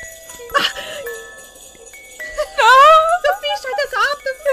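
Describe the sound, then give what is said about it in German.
A children's toy, stepped on underfoot, plays a warbling, tinkly tune with sliding high-pitched tones and short bursts. It is moderately loud and slightly eerie in tone, with no speech over it. “Ich habe auf irgendein Kinderspielzeug getreten. Äh, wer, wer will denn sowas? Mit so einem gruseligen Geräusch.”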